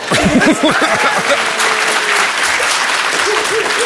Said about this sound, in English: I know, but I want to have that applause every time. I know. Can you applaud but keep your eyes closed?